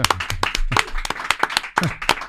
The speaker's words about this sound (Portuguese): Primeiro, palmas pra esse cara. Palmas pra esse cara.